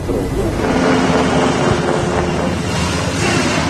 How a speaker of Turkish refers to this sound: Akçakaya'daki ziyaretlerini tamamlayan Genelkurmay Başkanı Orgeneral Necdet Özel ve beraberindeki komutanlar helikopterlerle bölgeden ayrılıyor.